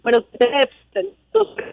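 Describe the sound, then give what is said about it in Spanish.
A caller's voice over a phone line, giving an address and phone numbers, cuts in and out, arriving in a few choppy, muffled bursts separated by sudden silences, as the call breaks up. “No, espérate, …, te, te estamos perdiendo, repite los números de teléfono”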